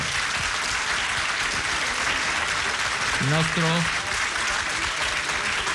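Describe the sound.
Steady, dense audience applause at a festival in Mantova fills the whole stretch, a continuous hiss of many hands clapping at even loudness, with a short spoken phrase briefly rising over it partway through.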